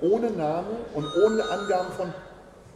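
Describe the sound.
A telephone rings faintly in the background, a steady high electronic trill sitting beneath a person's continuous nearby speech.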